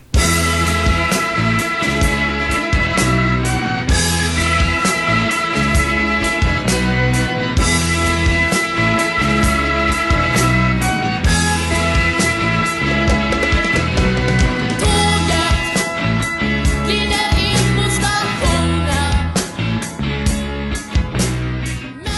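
A loud, full-band 1979 Swedish rock song plays steadily throughout, with driving drums and guitars under a high-pitched, bright male singing voice that sounds about 14 years old, no talking over it.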